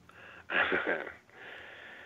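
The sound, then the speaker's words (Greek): A phone caller's heavy, wheezy breath rasps, one loud drawn-out exhale followed by a softer airy breath, with a thin, band-limited telephone-like hiss underneath. “Από την ανάσα καταλαβαίνω κατευθείαν.”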